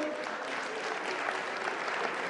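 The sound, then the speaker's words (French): An audience applauds a woman steadily, a dense, continuous patter of many hands clapping at an even level throughout, with no voices standing out above it. “on peut l'applaudir parce qu'elle a vraiment.”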